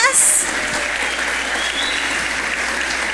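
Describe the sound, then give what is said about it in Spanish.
A church audience claps steadily for a few seconds for all the mothers on Mother's Day, a dense wash of many hands applauding at once, fairly loud, with a brief high squeal near the start. “Vamos a darle un aplauso a todas las mamás.”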